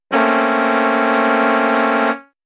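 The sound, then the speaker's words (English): A single loud, steady horn blast lasting about two seconds, rich in stacked harmonics with a buzzy, brassy tone, starting abruptly and fading quickly at the end, heard alone, sounding to signal the end of a timed minute. “And when I hit the minute, there's going to be a horn that sounds like this.”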